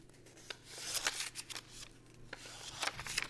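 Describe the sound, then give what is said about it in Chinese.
Banknotes counted by hand in an ASMR video from Cathay United Bank: a quick run of crisp, papery flicks and rustles, soft and irregular, with a faint steady hum underneath and no voices. “它这个点击才三万两千次啊，这是手数钞的声音。”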